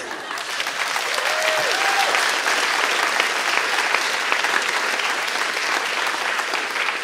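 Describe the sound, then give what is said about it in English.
An audience at a speaking event applauds steadily for several seconds, a dense wash of clapping from many hands that stays loud and even throughout, with a brief whistle-like tone near the start. “And could you please give our other speakers a huge round of applause as well?”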